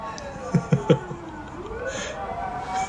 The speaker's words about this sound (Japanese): すいません聞こえちゃったまたすいません皆さんね大変だねピーポーがね聞こえちゃったからょっとね気にされてる方もいらっしゃると思うんですけれども